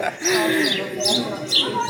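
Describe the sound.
A few sharp, harsh jackdaw calls repeat over about two seconds, loud, with a man's voice murmuring low underneath.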